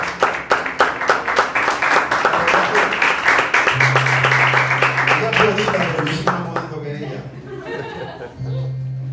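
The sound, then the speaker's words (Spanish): A crowd bursts into loud, sustained applause for a woman, with rapid overlapping claps, some cheering and chuckles mixed in, tapering off near the end as a low steady hum sounds underneath. “Den un fuerte aplauso a esa mujer que usted ve que no se hermana.”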